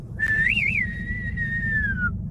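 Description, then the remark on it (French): A whistled and sung theme from the film The Good, the Bad and the Ugly, done as a two-voice snap: a short rising and falling flourish followed by a long, steady note that slowly glides downward, clear over a low rumbling background. “c'est moitié sifflet, moitié euh, on met de la voix.”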